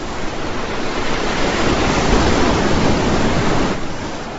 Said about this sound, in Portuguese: Olhou as ondas que rebentavam pouco abaixo de seus pés.